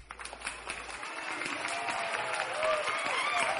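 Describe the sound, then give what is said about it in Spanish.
A large audience claps in honour of the Lord during Christian praise, in a dense, continuous wash of applause that swells slightly toward the end, with faint voices or music audible underneath. “Sí, Señor, te alabamos, aplaudimos en tu honor, Señor, y entre gritos de júbilo te ofrecemos el fruto de nuestros labios la alabanza que te pertenece, Señor.”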